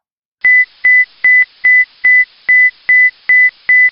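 A space station emergency alarm for situations threatening the astronauts' survival sounds: nine short, steady, high-pitched electronic beeps in a fast, even rhythm, each with a sharp click at its onset, loud and alone with no talking.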